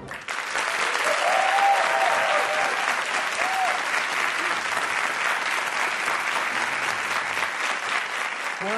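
Sustained audience applause welcoming Brazilian ballerina Márcia Aidê as a guest, a dense, steady wash of many hands clapping at even loudness for several seconds, with a few faint voices and whistles mixed in.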